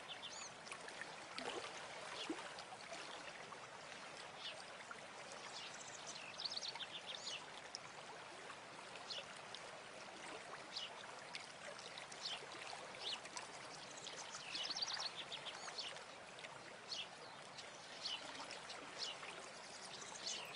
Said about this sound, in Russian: Бурлящая вода течет мимо тебя. Она берет свое начало из источников – далеко в горах, танцевала в глубоких ущельях, разливала с туннельными местами над далеким водопадом.